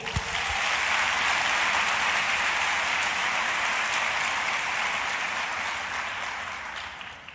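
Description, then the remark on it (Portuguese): An audience claps steadily and loudly for several seconds, a dense wash of many hands that holds evenly before tapering off slightly at the end, with no talking. “Aleluia! Aplauda mesmo.”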